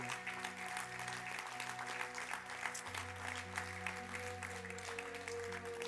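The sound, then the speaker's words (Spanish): An audience claps steadily and densely for several seconds in applause for the King of Kings and Lord of Lords, a continuous wash of applause over sustained low organ or keyboard tones that shift pitch midway. “¿Cuánto le pueden dar un aplauso al Rey de Reyes y Señor de Señores este”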